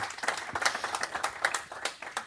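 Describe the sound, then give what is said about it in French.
People at a technology workshop applaud two guest speakers, dense overlapping claps forming a steady, fairly loud wash of sound with no one speaking. “Alors je vais d'abord, je voulais vous remercier tous les deux d'avoir répondu à mon appel pour cet atelier techno et ben, j'aimerais bien qu'on vous applaudisse déjà.”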